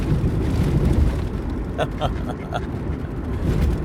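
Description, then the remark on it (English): A car rolls along the road with a heavy, steady low rumble and a dull, loud thumping that carries through the cabin, with a brief muffled voice midway. “Um, while while on the road, you can hear that. You can probably hear that thumping.”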